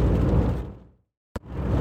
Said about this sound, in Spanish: Probablemente estéis oyendo ruido, es lluvia, está lloviendo, así que lo siento, pero si quiero grabar hoy, esta es la manera en que tengo que hacerlo.